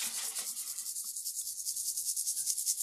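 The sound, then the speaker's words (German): Tiny candy sugar beads rattle continuously inside a container, a bright, fine, hissy shaking with a quick pulsing rhythm, steady for a few seconds, no voices. “da eine Ratte drin? Ah. Oh, Liebesperlen.”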